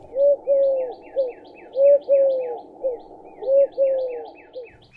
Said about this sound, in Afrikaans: Kur kur Diedrik duif stoot sy ronde duifbors ver uit.